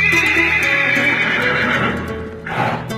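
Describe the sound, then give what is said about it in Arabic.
An Arabian horse neighs loudly, a long shrill whinny that wavers and fades, followed by a short snorting breath at the end. “الحصان العربي”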